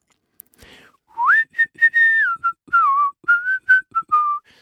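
A person whistles a short melodic tune, a string of clear pitched notes rising and falling with brief gaps between phrases, with no talking.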